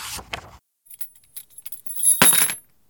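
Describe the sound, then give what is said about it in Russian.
A bunch of apartment keys jingles and clinks in short metallic bursts, a brief shake, a pause of scattered light tinkles, then a louder, fuller jangle before it settles. “Ключи от квартиры Сергей хранил долго.”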